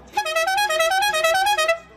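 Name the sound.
car horn honking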